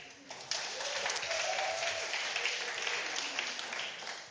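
An audience breaks into applause: a dense, steady wash of many hands clapping, bright and sustained for several seconds, with faint murmuring voices mixed underneath.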